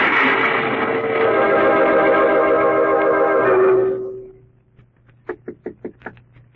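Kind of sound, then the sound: impact, knocking on a door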